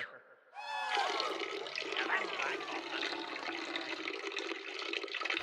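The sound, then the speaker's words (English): A man urinates into a toilet, picked up by his microphone that is still on: a steady, splashing stream of liquid pours into toilet water, loud, starting abruptly after a brief quiet moment and continuing without a break. “Well, now that the bladder's empty, I'm feeling pretty good.”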